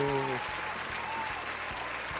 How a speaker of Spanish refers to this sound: Y esto es Función Especial. ¡Eh! ¡Aplausos!